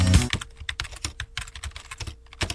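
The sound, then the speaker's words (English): Rapid, uneven clicking of fingers typing on a computer keyboard, writing a review of the White Labs WLP 400 yeast strain, fairly clear, with a brief louder knock at the start and a faint steady hum underneath. “Writing a review of WLP 400.”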